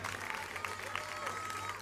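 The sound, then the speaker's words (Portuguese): A church audience applauds to praise God in a steady, dense wash of clapping, with faint murmuring voices mixed underneath and a low steady hum throughout. “Se a fidelidade de Deus é grande, aplauda o Senhor.”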